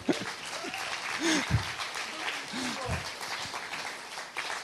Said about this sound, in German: Ein Applaus für unsere Technik.